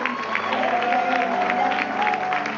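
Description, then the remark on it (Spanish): A church audience claps steadily and enthusiastically for a few seconds for a woman and a young man coming forward to commit their lives to Jesus. The clapping is a dense, loud wash of many hands, with faint background tones and a few crowd voices mixed in. “Un aplauso a esta bella dama. Un aplauso este joven.”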